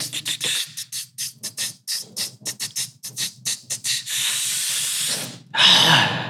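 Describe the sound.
A voice imitates blowing into an instrument with a fast run of short, breathy hissing puffs, then a long steady exhale and a final sharper, louder blast of air.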